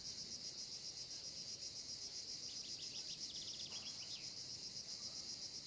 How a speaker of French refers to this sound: Et entre chacun de ces petits espaces, le sable à tes pieds, les arbres et le ciel au-dessus de ta tête, le chant des cigales et des oiseaux dans tes oreilles.